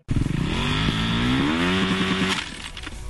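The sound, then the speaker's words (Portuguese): A motorcycle engine revs loudly, its pitch climbing and holding in a steady throaty whine before cutting back to a rougher idle near the end. “Deu problema no motor? O que você precisar para sua moto”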